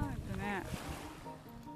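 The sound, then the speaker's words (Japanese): Waves of the sea in Okinawa wash steadily over a shore, a constant rushing surf, with light clinking of coral fragments tumbling in the water and a brief voice sounding partway through. “海辺に来ました聞こえますかこの波の音聞こえます沖縄の海いやいいですねサンゴのかけらがカランカラン言って”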